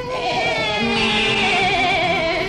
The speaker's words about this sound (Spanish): Eh, lo único que oigo son balidos de ovejas.